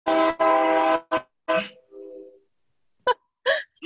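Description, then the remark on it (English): A loud, brassy horn from a passing train blares in two long blasts back to back, then fades into scattered short sounds and brief snatches of voices. “was a very loud train.”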